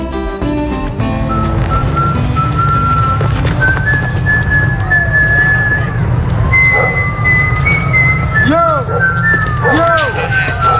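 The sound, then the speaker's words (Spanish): Someone whistles a slow melody of long held notes and sliding pitches, joined by quick swooping whistles near the end, over a steady low rumbling backdrop. “Vamos a hablar esta mañana de una serie de forajidos. Eh, forajidos que silban.”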